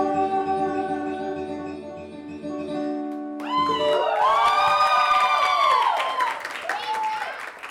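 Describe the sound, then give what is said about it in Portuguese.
A sustained musical note holds for a few seconds at the end of a song at a singer's debut show, then breaks into loud audience cheering and applause from friends and listeners, with excited voices whooping and shouting over a dense wash of clapping. “São 15 músicas, uma hora e muitas palmas.”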